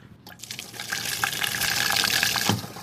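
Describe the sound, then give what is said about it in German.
Water rushes and splashes steadily into a small plastic camper toilet cassette for a few seconds as a button is pressed to flush it, a bright flushing sound with faint gurgles and no voices. “So, Achtung, ich drücke jetzt den Knopf. Wir müssen nämlich jetzt äh, spülen.”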